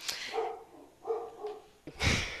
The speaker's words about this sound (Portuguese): É, a participação animal do episódio aí de novo, a Frida, a Frida latindo, gente.